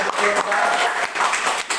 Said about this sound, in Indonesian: Tepuk tangan dulu dong buat kampus kita.